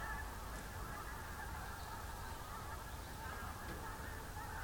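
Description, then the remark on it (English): A large flock of several hundred, maybe a thousand, geese honks continuously at night from a roosting space beside a river, a dense overlapping chorus of calls rising and falling steadily with no pauses, heard faintly over a low background rumble. “We have a roosting space to the side of the river and several hundred, maybe a thousand geese and probably 20 whooper swans stay there over the winter.”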